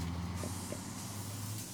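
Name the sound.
bus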